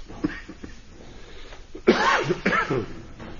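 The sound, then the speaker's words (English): A person coughs, a short rough cough burst followed by a couple of quick harsh hacks, with a faint throaty sound just before; no one speaks. “can you get cough drops on my desk?”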